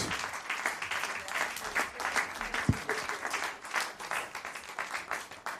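crowd, applause

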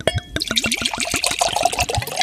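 household object, wine glasses clinking

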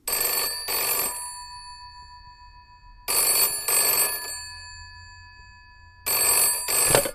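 signal or alarm, telephone call ringing tone

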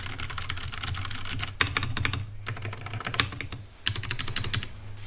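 tool, typing on mechanical keyboard

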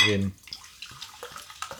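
human body sound, gulping a drink

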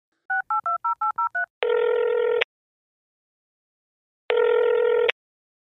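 signal or alarm, telephone dialing tones

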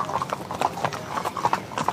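animal, horse hooves clip-clopping

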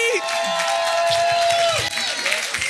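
crowd, audience applause and cheering

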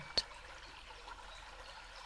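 nature, babbling

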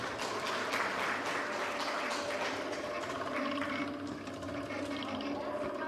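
crowd, audience applause

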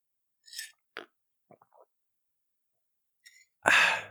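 food or drink, slurping coffee

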